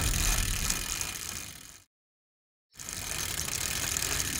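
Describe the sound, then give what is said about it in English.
A bicycle freewheel ratchets steadily as someone rides, a dense, fast ticking buzz that cuts out for about a second midway, then resumes at the same level. No one speaks. “Uh, oh, look! A bicycle! Come back, you!”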